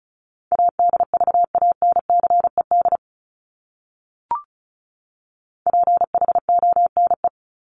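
Fast Morse code beeps at 35 words per minute in a steady single pitch, spelling out common English words, tapped out in two quick bursts separated by a short pause with a faint click, clear with no talking.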